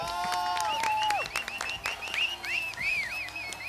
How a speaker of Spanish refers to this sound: así que le damos ya la bienvenida con todos los aplausos.